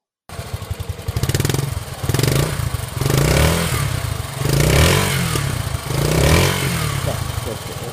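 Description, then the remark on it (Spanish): An XT 250 single-cylinder four-stroke trail motorcycle engine (249 cc, 17 hp at 7,500 rpm) runs, its thumping exhaust pulsing and rising in repeated revs, loud and steady for the whole stretch. “Vale, bueno, y ahora vamos a poner cómo suena la XT, la 250, la de verdad, ¿vale?”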